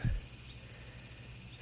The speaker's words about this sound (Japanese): 先日、梅雨も明けて、毎日、うだるような暑さです。この、鬱陶しいまとわりつくような暑さに、セミの声をプラスして皆さんにお届けします。